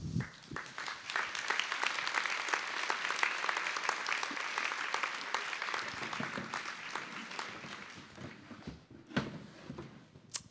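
A crowd applauds steadily for around ten seconds, dense overlapping claps filling the room before gradually thinning out toward the end, with a few louder individual claps near the finish.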